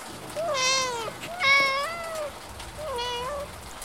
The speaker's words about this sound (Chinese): 小猫还是叫个不停